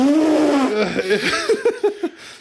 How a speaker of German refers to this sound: Riesengroßer Elefant. Ein also nee. riesengroßer, riesengroßer Elefant.